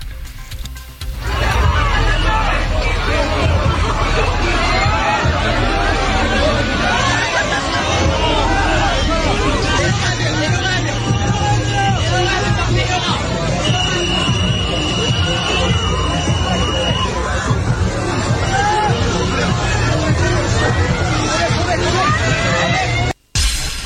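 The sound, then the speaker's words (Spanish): A dense, chaotic crowd in a stampede, people pushing to reach a bar, roars continuously, overlapping shouts and screams blending into a loud, churning babble with a low throbbing rumble underneath, steady for over twenty seconds before cutting off abruptly. “Escuchemos un poco de la estampida.”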